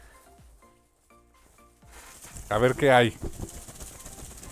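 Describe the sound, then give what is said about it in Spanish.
Paper slips rustle and shuffle inside a small Panini Comics México bag, a steady scratchy rummaging that continues through the second half while a person says a few words over it. “Sí, ese es el ruido de la bolsita, de hecho.”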